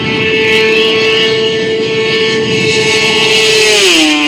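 A motorcycle engine roars loudly and steadily at high revs during a speed record attempt at Montlhéry, aiming for about 270, its droning tone holding constant before dipping in pitch near the end as if shifting gear. No voices are heard.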